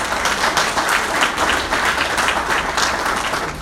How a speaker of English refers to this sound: Well, I'll tell you what, give, uh, give uh, not that Jim needs a glory song, give Jim a, a round of applause if you would.